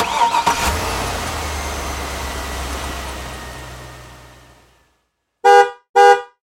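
A car engine cranks and rumbles steadily before fading out, followed after a brief pause by two short, loud honks of a car horn.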